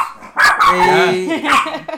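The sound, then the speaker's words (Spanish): A dog barks loudly in a few sharp, rapid bursts, with a person's voice mixed in. “Es, tradición, güey, ya es parte del puto Si no ladra este güey, es porque no, hay, no hay, no hay, no”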